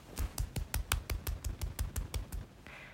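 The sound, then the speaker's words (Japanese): A quick, steady run of about a dozen soft, dull slapping claps made with the upper arms, evenly spaced and fairly quiet, with no talking. “今ちょっと手のひら使えなくて、あの、二の腕で拍手しました。”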